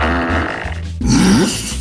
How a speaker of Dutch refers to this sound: Dit is eh, thuisonderwijs via Google Classroom of Microsoft Teams. Ja, luister mee. De juffrouw laat een scheetje en de kiddo's die moeten enorm lachen.